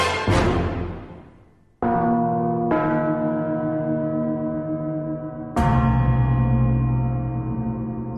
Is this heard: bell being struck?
yes